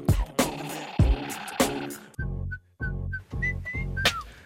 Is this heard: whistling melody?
yes